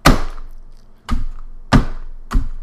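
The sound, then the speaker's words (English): A notary's rubber stamp thumps down onto paper four times in an uneven rhythm, each press a solid thunk with a short ringing decay, and no talking. “Yeah, that's stamp.”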